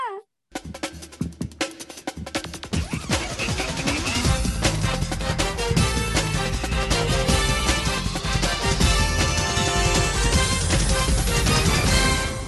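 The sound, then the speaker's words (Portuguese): An upbeat instrumental jingle bursts in after a brief sharp intro, building into dense, loud music with steady driving percussion and layered synths that rise in intensity over about twelve seconds. “Gente, olha pro céu, a vinheta tá chegando.”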